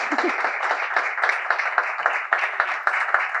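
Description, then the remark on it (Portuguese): An audience at the Fémina event applauds a participant steadily for a few seconds, many hands clapping in a dense, crackling wash at an even, fairly loud level, with no voices over it. “Peço-vos um aplauso para a Joana.”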